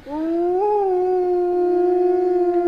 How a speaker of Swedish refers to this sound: Men det händer då och då att han ger ifrån sig ett litet tafatt ylande.